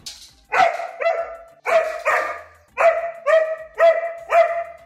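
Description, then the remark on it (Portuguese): A dog barks loudly, giving about eight sharp, harmonic barks in quick pairs and bursts with short pauses between them, no one talking. “Jamais esqueceria, meu caro cachorro,”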